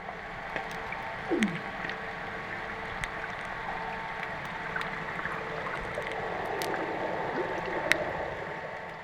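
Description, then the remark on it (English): Underwater hydrophone recording of oxygen bubbles rising and popping: scattered sharp little pops and ticks over a steady watery hiss, with a brief low gurgling swoop near the start. “But then also you can hear the sound of oxygen bubbles rising to the, the surface of the water and popping, or oxygen bubbles forming from the plant life in the water.”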